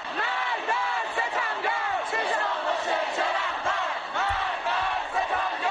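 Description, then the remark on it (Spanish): A large crowd of protesters, mostly young people facing riot police in Iran, chants slogans in unison, many voices shouting together in a steady rhythmic cadence, loud and continuous throughout, with the echoing roar of a mass gathering in the street. “Eh, fueron miles de valientes que se enfrentaron a los antidisturbios, con gritos como este.”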